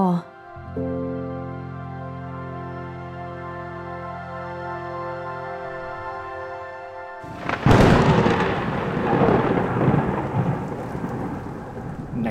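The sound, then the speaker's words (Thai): Held musical tones ring for several seconds, then a sudden loud rumble of thunder breaks into heavy, unseasonal rain falling outside a large two-storey house in the evening, a dense hiss that pours steadily until the end. “ช่วงค่ำ ณ บ้านหลังใหญ่สองชั้น กับบรรยากาศที่เปียกแฉะจากฝนหลงฤดูที่ตกหนักอยู่ข้างนอก”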